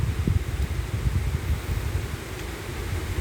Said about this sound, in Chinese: 现在是早上的八点二十分，大家可能听得出来，现在正在下雨